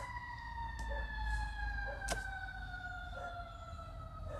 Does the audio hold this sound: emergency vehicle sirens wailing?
yes